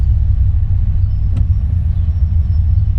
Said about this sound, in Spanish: Hay un ruido raro, no sé si es mi carro o es una moto que anda por ahí.